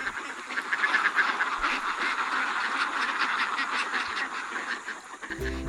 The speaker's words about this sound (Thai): เมื่อถึงบ้านเป็ดก็เดินเรียงรายกันเข้าคอกเข้าเล้าของตัวเองเรียบร้อย ที่เล่าให้ฟังเนี่ยไม่ใช่เป็ดหลักสิบหลักร้อยตัวนะคะเป็นพันเป็นหมื่นตัวกันเลยทีเดียว เลี้ยงไว้เพื่อเก็บไข่เป็ดขาย